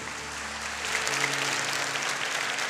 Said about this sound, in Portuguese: Então pode aplaudir a vida.